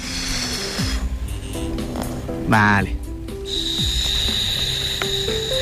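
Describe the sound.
A short, raspy exhale rattles through a scuba regulator, a buzzy half-second burst amid mechanical clicking, with a person talking before and after; a beginner test-breathing through the regulator with nose pinched before diving in the sea.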